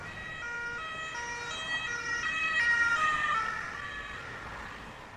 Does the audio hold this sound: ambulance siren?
yes